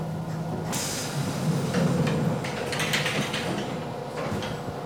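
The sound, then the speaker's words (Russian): Train doors hiss and slide shut with a burst of air, followed by the low, steady rumble and mechanical clatter of a train pulling away. No voices are heard. “А тебе «Осторожно, двери закрываются, следующая станция – Тужиловка».”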